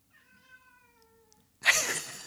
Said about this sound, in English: Oh, did you hear that? That's our half cat. oh, wow. I think he wants to come in.